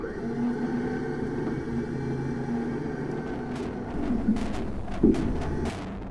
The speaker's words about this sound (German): Ein Seilwindenmotor brummt.